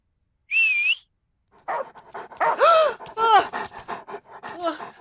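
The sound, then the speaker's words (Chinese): A brief high whistling tone, then a dog pants rapidly and lets out several whiny, yelping barks that rise and fall in pitch, fairly loud and without talk. “把你的狗借我用用。”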